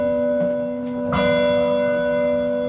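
Automated carillon church bells, set to play every hour, chime loudly up in the bell tower among many bells, with a huge bell directly overhead and some smaller ones; long sustained tones ring and overlap, with a fresh strike about a second in that swells over the lingering hum.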